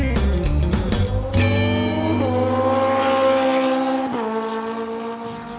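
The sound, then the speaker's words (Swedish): A motorcycle engine revs up and down, its pitch climbing and falling in strong harmonic surges, with a steady throaty rumble underneath and no one talking, at the Network MC motorcycle club in a cold warehouse at Lantmännen in Odensbacken, Sweden, behind an industrial area. “Network MC alltså, det är feta motorcyklar ni håller till på baksidan av ett industriområde.”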